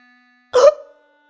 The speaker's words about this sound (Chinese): 肥猫打了个嗝，砰！老鼠跳出来